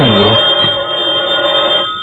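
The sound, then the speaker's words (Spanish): A telephone rings late at night, a sustained ring followed by a second shorter burst, heard through a muffled, hissy old recording. “¿Quién será? ¿Quién me hablará por teléfono?”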